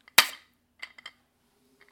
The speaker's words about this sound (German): Können wir nochmal anstoßen. Wollte ich auch mal sagen. Also dann stoßen wir nochmal an auf unsere fast 15.000 Downloads.